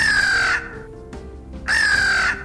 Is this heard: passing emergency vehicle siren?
no